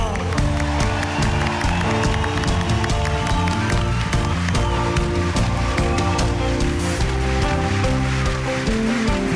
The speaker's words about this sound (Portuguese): Um aplauso para ….